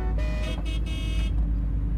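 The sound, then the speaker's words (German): Several angry car horns blare together in overlapping bursts for about a second over a steady low traffic rumble, then cut off, leaving the engine noise running. The horns honk behind a car that has swerved hard around a corner with squealing tyres. “Hinter ihnen blökte ein Rudel wütender Hupen.”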